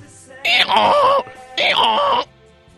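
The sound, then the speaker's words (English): Two loud, drawn-out vocal bursts, each under a second, a person imitating a Bronco horse's whinny with a strained, groaning quality, with a short pause between, on a Fox Sports Radio broadcast. “Making the sound of a Bronco right there.”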